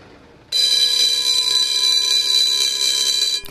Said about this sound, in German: Die Klingel signalisiert auch der umliegenden Nachbarschaft, dass alle dazu herzlich eingeladen sind, bei dem Verkaufswagen vorbeizuschauen.